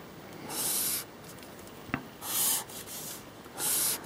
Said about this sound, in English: I love the sound of um, pens. That's one of the best things about traditional, I think, is the sounds as you're drawing.